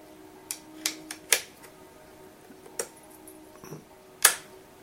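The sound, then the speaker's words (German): A magnetic, pin-shaped laptop power plug with a right-angled cable snaps firmly into its socket with several sharp clicks over a faint steady hum, the last click the loudest. No one speaks. “Klickt richtig fest rein.”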